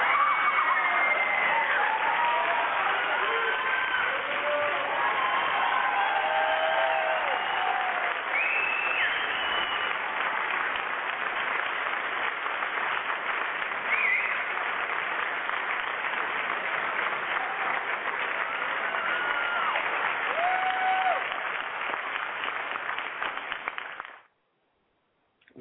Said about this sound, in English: applause was for both of you gentlemen. Thank you very much.